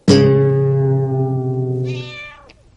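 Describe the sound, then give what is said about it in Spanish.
A single long, drawn-out, loud cat meow, holding a steady tone for a couple of seconds before trailing off, with no voices. “El gato.”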